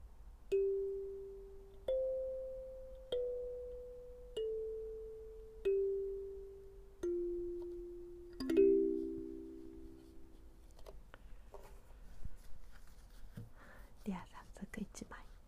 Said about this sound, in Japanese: 今宵もカリンバの音色とノルマンカードのメッセージお届けしてまいりたいと思います